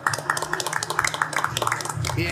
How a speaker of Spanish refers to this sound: Muy bien, señores, pues un último aplauso, ¿no?